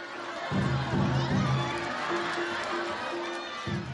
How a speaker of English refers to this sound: You know, there are times when you have your beers and hot dogs, and times when you cheer, times when you pay attention to what's going on, and times when you don't. You'll also hear audiences during these performances yelling out, Narita ya!